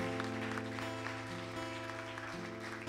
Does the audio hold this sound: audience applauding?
yes